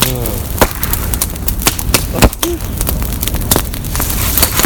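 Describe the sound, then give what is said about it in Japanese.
Sharp, irregular cracks and pops burst from hard bamboo burning in a bonfire, sounding like breaking glass, with a few louder snaps standing out over a steady roar; no one speaks. “ガラスが割れるみたいな音がすごい好き確かにしますね”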